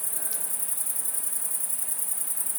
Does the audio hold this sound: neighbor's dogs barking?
no